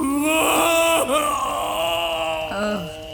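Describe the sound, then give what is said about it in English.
A man wails in a loud, drawn-out ugly cry, his strained moaning voice sliding up and down in pitch for about three seconds with only brief catches of breath. “oh God, he's got an ugly cry.”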